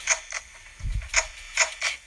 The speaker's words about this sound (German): Wenn man dieses, dieses hört, dann ist eine Kamera abgebrochen.